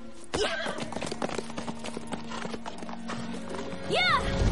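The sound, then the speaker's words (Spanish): Rapid clip-clop of horse hooves beats steadily throughout as riders spur their horses and ride through a forest, then near the end a horse lets out a short, high, wavering whinny that rises and falls in pitch. “Jamie espolea su caballo. Claire la sigue.”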